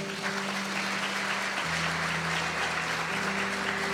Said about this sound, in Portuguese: Se você crer, dê uma salva de palmas a Ele.